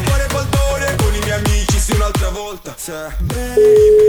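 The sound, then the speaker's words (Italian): A steady, clear ringback tone on a phone line during an outgoing call starts near the end, right after a stretch of rhythmic, bouncy music with repeating plucked notes. “Sta squillando.”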